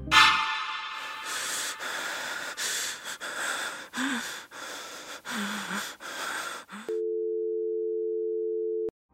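After several seconds of heavy, breathy rushes of noise, a steady telephone call tone hums for about two seconds as a call is placed to a family's home, clear and unbroken, then cuts off abruptly.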